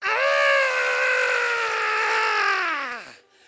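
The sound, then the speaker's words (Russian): A person imitates the Queen of Sheba screaming: one loud, sustained, high-pitched shriek held for about three seconds, its pitch sliding down as it breaks off at the end. “Она начала кричать.”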